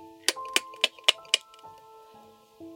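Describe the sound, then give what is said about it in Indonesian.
A house gecko in front of a bedroom window at night chirps in a quick series of five sharp clicks, evenly spaced, over a faint steady hum with no voices. “Saya dengar suara cicak itu lagi.”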